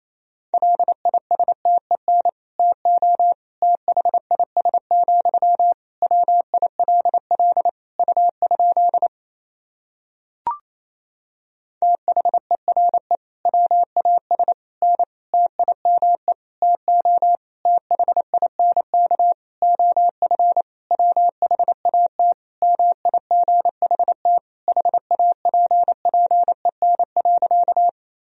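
Fast Morse code beeps sent at 28 words per minute in a single steady pitch, keyed in quick dots and dashes. They run continuously, stop briefly midway, where a short click is heard, then resume at the same brisk pace.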